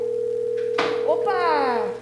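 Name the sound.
telephone ringing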